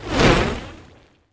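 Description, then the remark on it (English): A single broad whooshing sweep, a swoosh transition sound effect, swells quickly and then fades away over about a second, loud, heard alone with no voices. “uh, can you swoosh it one more time?”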